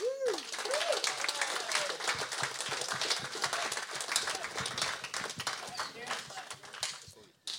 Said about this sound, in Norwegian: Kan klappe inn han her.